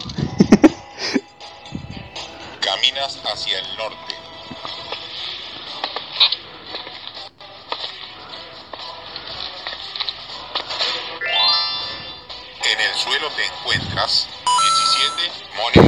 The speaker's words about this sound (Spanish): En el suelo te encuentras 16 monedas. Vamos con el sonido de Mario.